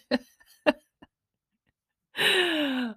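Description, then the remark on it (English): Two sharp coughs about half a second apart, then a small third one, followed after a pause by a longer, strained, falling vocal sound. No talking. “So, we're going to sneeze, we're going to cough, we're sniff all the things.”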